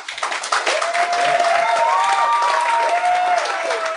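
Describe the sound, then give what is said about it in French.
A live audience breaks into dense, steady applause as a vote for several seconds, with some whoops and cheering rising over the clapping. “Qui pense qu'il est allé aux toilettes, applaudissez.”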